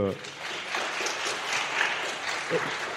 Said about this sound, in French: En tous les cas, merci, bravo aussi pour euh, votre euh, travail, et puis on peut les applaudir, bien évidemment.